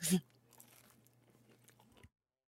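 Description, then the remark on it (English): A sharp, loud crunch as a crispy mini pizza is bitten, followed by about two seconds of softer crackly chewing, ending abruptly. “it's a pizza, a little mini pizza, and I just really proud of how crispy I had made that piece”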